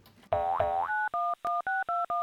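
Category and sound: signal or alarm, telephone keypad dialing tones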